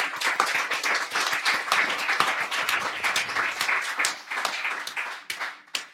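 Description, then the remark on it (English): An audience at a live evening event applauds the venue's owners steadily for several seconds, a dense crowd of many hands clapping at once, sustained, tapering slightly toward the end with no talking. “Let's give them a round of applause.”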